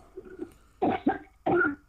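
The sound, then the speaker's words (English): A person coughs three times in quick succession, harsh, with two rapid bursts followed by a brief pause and a longer, rougher cough, coughing into a cup during a prayer commanding spirits to get out. No talking is heard. “Cough them out. Cough to your stomach. Go, go. Cough in that cup.”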